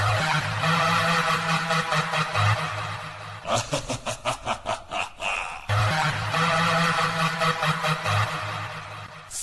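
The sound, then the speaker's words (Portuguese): A loud, distorted electric guitar plays a short opening jingle for a second season: thick sustained chords, a burst of quick choppy strums in the middle, then sustained chords again, with no talking. “Eu vou pegar minha guitarra.”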